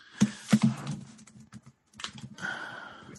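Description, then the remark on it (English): Typing on a computer keyboard: a quick, irregular patter of sharp key clicks with a couple of louder strikes and a brief pause midway, no voices. “As we hear you typing, I literally have absolutely no idea.”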